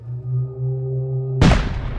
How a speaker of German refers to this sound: Lang blies er nicht, löste sich doch ein Schuss aus der Pistole des wütenden Hexenjägers Clemens Hochhut von der Lerche. Ein Volltreffer.